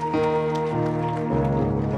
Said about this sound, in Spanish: Amén. Pueden darle un aplauso, ponerse de pie, por favor, conmigo.